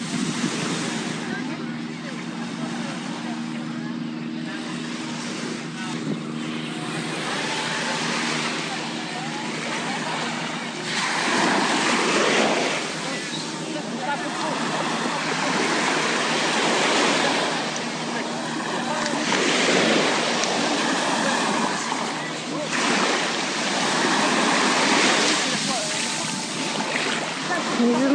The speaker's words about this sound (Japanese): ちょっとじゃあ波の音とか楽しんでもらおうかな